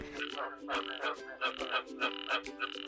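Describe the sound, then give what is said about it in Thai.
Frogs croak in a dense, rhythmic chorus, with raspy pulsed calls repeating every half second or so, fairly loud, with no voices present. “กบนั้นจะไข่ไว้แล้วก็จากไป ลูกๆกก็รอเวลาออกจากไข่แล้วก็หากินเอง เติบโตเอง”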